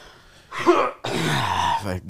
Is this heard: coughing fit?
yes